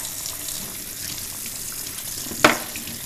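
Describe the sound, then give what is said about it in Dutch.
Steady running warm tap water splashes into a sink as a child's water bottle is rinsed, a continuous hiss with one brief, sharper clunk of plastic near the end. No voices. “Ik spoel even een. Eh, ik was even een waterfles eh, voor mijn zoon.”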